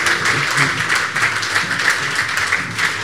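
An audience applauds steadily, a dense wash of many hands clapping at an even, moderately loud level for the whole stretch, with no voices rising above it.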